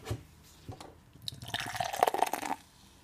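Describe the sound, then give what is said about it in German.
A very pale, hazy, cloudy, heavily hopped beer with lots of foam is poured into a glass, starting with a few soft splashes and swelling into a steady, fizzy gurgle that rises in pitch as the glass fills, fairly quiet. “Ich schenke jetzt ein.”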